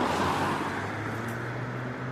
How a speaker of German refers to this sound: befinde mich auf dem Parkplatz eines Supermarktes.